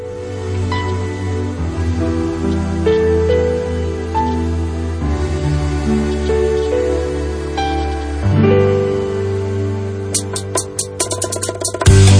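A bachata song requested by a listener from Pontevedra plays loudly and steadily with guitar-led melody and a bass groove, shifting toward sharper, choppier percussive hits near the end; no one sings or speaks.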